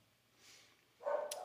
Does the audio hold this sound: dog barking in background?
yes